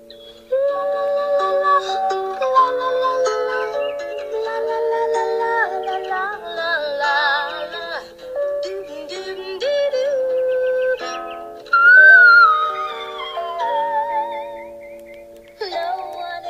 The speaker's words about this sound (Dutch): Vandaag wil ik het even hebben kort over het fluitregister